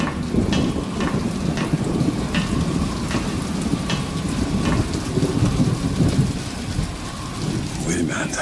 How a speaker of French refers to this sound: Il fait nuit, il pleut